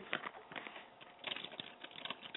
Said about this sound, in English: I'm I'm typing in the green room.